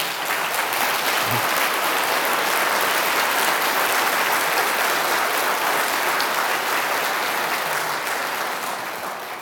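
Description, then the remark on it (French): Sustained audience applause welcoming astronomer Françoise Combe, the first woman astronomer at the collège, a dense, steady wash of many hands clapping at an even loudness for several seconds before easing slightly at the end, with no voices standing out. “crois que ces applaudissements auraient fortement réjoui Lalande”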